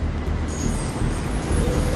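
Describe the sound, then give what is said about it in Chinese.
A high-speed train, taken a little after 8 a.m. and bound for Pei County, China, produces a steady, continuous rumble with a broad low roar and a faint, thin whine riding above it. The sound holds an even loudness throughout, and no one speaks. “我们是早上八点多的高铁，到沛县也是到晚上十点多钟了。”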